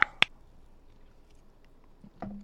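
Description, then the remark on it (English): Someone takes a sip of a drink: a couple of sharp clicks, a quiet pause, then soft mouth and swallowing sounds at the end. No one speaks. “Uh, cheers to you guys. Uh, let me take a sip.”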